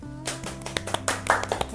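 A small group breaks into brisk, uneven applause, with sharp individual claps standing out over a steady low musical hum, lasting under two seconds with no talking.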